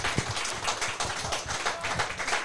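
An audience applauds, a dense wash of many hands clapping steadily at an even level for a couple of seconds, with no voices over it.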